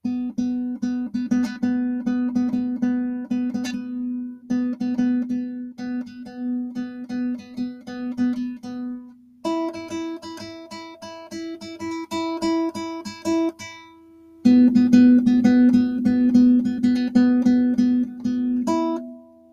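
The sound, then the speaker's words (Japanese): A melody played one note at a time on a single instrument, repeating one pitch in a steady rhythm, stepping up to a second note partway through and then dropping back. No voices. “今和音でやっちゃったからね、いっぱい音が入ってますけど、えー、これを単音のメロディーだけでやると、”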